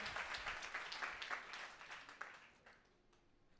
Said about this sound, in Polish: Wielkie brawa dla tego mistrza odważnego.